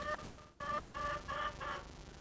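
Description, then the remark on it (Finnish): Several chickens cluck in short, repeated bursts, clear, with a brief pause partway through and no talking. “Täällä on kanoja ja täällä on riikin koki.”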